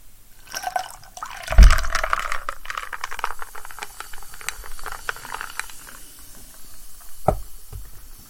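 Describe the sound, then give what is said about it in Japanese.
Tonic water is poured carefully into a glass, a steady fizzing, bubbling trickle with a few soft clinks and a low thump partway through, then a brief knock near the end. “今日は慎重に 慎重に注いでやりすぎないでトニックウォーター バスみたいな音がするな。”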